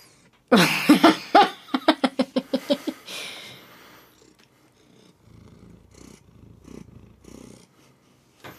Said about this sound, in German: Er ist glücklich, weil er jetzt hier rein durfte. Und jetzt schnurrt er natürlich, weil er wieder das bekommen hat, was er wollte. Gell? Du musst ins Mikrofon schnurren, dann hört das wenigstens jeder